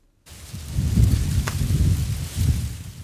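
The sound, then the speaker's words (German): A light, gusting wind blows over a hill above the Jordan Valley and buffets the microphone outdoors, a low rumbling whoosh that swells and eases over a few seconds, with no voices present. “Leichter Wind weht über einen Hügel oberhalb des Jordantals.”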